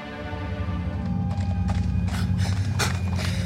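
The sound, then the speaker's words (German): Hooves of an Elder mare pound in a fast galloping rhythm as her rider drives her on, many miles past a forest, over a steady low rumble, with sharp thudding impacts growing more prominent partway through. No one speaks. “trieb Jardon seine Elderstute an, als gäbe es keinen Morgen mehr”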